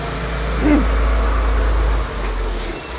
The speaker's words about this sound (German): jetzt kommt gerade ein Laster, den lassen wir mal vorbeifahren. Genau, die Getränkelieferung, die ist wichtig.